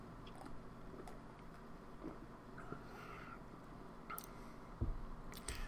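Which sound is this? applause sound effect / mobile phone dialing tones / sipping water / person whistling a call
sipping water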